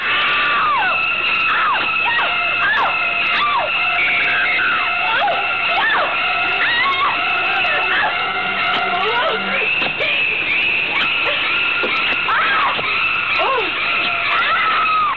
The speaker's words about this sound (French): La scène est également célèbre pour l'accompagnement musical